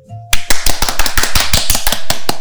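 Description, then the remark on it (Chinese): Audience applause welcoming chest physician Dr. Lin to a talk on quitting smoking breaks out suddenly after a brief quiet moment, a loud, steady patter of many hands clapping together that continues for about two seconds with no voices over it. “我们掌声一起欢迎林医师。”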